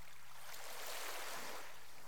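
Soft ocean waves wash in a steady hiss, swelling gently toward the middle and easing off again, heard alone at a low, calm level with no voices.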